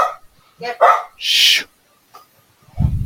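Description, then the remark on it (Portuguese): A dog barks and yelps in a few short, sharp bursts, with brief pauses between them and a lower rumbling sound at the very end. “Acho que ele o quer cachorro falar também tá reclamando, tá vendo?”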